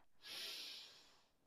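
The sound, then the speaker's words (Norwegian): A deep inhalation through the nose during a guided breathing exercise to clear the head: one steady, airy hiss of breath lasting about a second, swelling quickly then tapering off. No talking. “Og så puster vi godt inn med nesa en gang til.”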